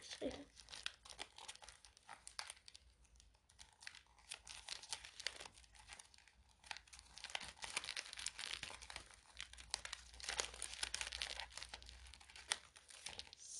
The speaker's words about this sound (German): Oh, scheiße. Ich kann einfach keine Geschenke einpacken, ganz ehrlich.